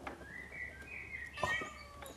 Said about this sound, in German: Miau, hallo, miau.